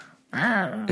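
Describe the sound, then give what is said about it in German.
A person imitates a drunken cat with one drawn-out, slurred meow whose pitch rises and then sags, followed by a short rough burst of breath. There is a brief hush before it. “Ich kann nur, ich kann nur besoffene Katzen.”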